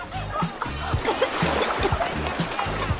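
Water splashes and churns as someone thrashes about in a swimming pool, swallowing water and sinking, with rhythmic low thumps and gasping, strained vocal sounds mixed through the commotion.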